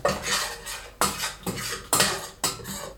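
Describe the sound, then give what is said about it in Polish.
A utensil clatters and scrapes against a pot in several quick strokes as garlic and onion are stirred, with metallic clinks about every half second, fairly loud, with no voices. “Przemieszam sobie”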